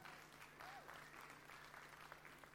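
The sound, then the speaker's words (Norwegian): An audience claps steadily for a person, a dense, continuous patter of applause at moderate volume with a faint steady hum underneath. “Ja, vi må gi han en klapp.”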